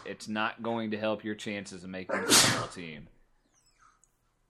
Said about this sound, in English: Bless you, ah, bless you, bless me.